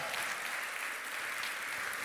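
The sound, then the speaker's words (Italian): An audience applauds the young people steadily, a dense, continuous wash of many hands clapping at an even level throughout, with no voices standing out above it. “Potete andare, facciamo un applauso ai ragazzi.”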